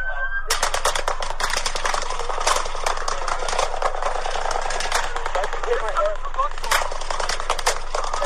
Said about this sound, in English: There's gunshots coming from over there. Go that way. Go that way. There's gunshots right here.